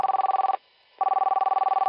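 A phone call to a boy's mother rings unanswered: a ringing tone sounds in two steady, warbling bursts separated by a short pause, fairly loud, with no one answering and no voices.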